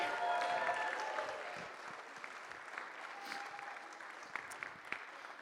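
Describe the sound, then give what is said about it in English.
An audience claps steadily for several seconds for a youth group headed to camp, a dense wash of applause mixed with a few cheers and whoops early on, gradually thinning toward the end with scattered louder claps. “Let's give a big cheer.”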